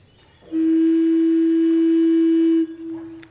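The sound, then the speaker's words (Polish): A single low note, F, the lowest note of a baroque alto recorder, held steadily for about two seconds with a soft, pure, breathy tone, fairly loud, then released. “Jego skala zaczyna się od dźwięku F, a nie od dźwięku G, czyli tak jak mówiliśmy, najniższy dźwięk na flecie renesansowym, altowym brzmi tak.”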